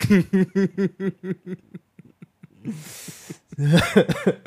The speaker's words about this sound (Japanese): ちょっとね咳しすぎ喉が風邪ひいちゃってね風邪ひいちゃったの風邪今週ずっと風邪ひいててなんかね咳が出ちゃうのよ